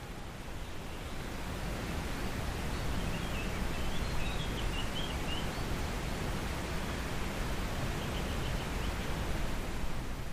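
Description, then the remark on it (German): A steady, even wash of wind rustling softly through trees in the evening at dusk, soft and continuous with no breaks or gusts, filling the background without any voices. “Mit einer Tasse Tee in der Hand lauschst du dem Wind, der leise durch die Bäume rauscht, als würde er dir seine Geheimnisse erzählen.”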